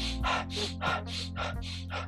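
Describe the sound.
A person demonstrates fast, deep breathing, about eight sharp, forceful breaths in quick steady rhythm, with a low steady hum in the background and no talking.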